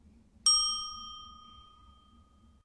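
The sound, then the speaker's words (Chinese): A single bright ding chime rings out with a sharp attack and a clear, high metallic tone that slowly fades over about two seconds, alone with no talking. It is a cue for children to say their line in an English question-and-answer dialogue practice. “小朋友们听到“叮”的声音后，请说出你的那一句对话。”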